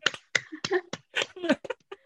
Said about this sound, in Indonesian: Tepuk tangan dulu buat kita berdua.